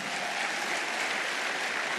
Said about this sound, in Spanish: Si va a aplaudir, aplauda más fuerte.